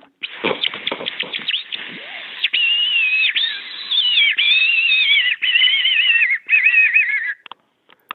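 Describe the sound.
A person imitates a dying bird's distress call as a fox-hunting lure, panting air in and letting it escape: rapid broken squeaks settle into long, strained, wavering wails, then trail off into gasps as the breath runs out. Loud, with no talking.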